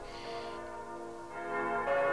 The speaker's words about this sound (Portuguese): Em cima santos sinos das igrejas romanas, dobrando quando o cardeal anuncia o pontífice. Uma das marcas do 13 Horas, né?